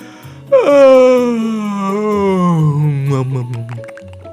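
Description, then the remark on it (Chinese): A big, drawn-out yawn from a voice imitating it: a sudden loud onset sliding slowly downward in pitch over about three seconds, then trailing off into a soft sigh. “爱玉呢打了一个大大的哈欠。”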